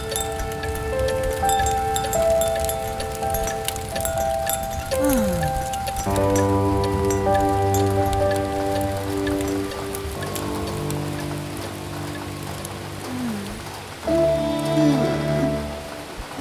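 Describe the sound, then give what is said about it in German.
Steady rain patters and drums on a roof, a dense continuous wash of drops, with soft sustained musical tones and gliding notes running underneath throughout. “Das Geräusch des Regens auf dem Dach”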